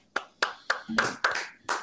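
crowd, applause

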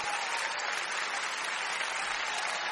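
crowd, crowd applause and cheering

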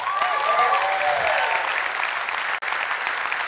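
crowd, audience applause

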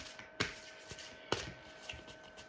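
household object, shuffling tarot cards

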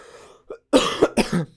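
human body sound, cough

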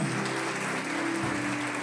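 crowd, audience applauding

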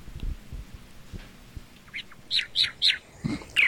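bird, parrot chirping

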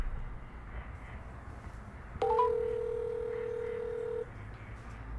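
signal or alarm, telephone keypad dialing tones

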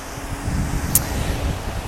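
nature, wind blowing

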